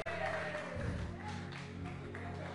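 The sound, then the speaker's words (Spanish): A church audience applauds in a steady, dense wash of clapping, with some sustained tones and faint voices mixed underneath. “Un aplauso para.”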